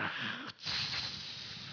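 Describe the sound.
A voice imitates the static of an old radio while its channel dial is tuned, a loud, rough hissing rush, broken by a brief pause and then continuing steadily.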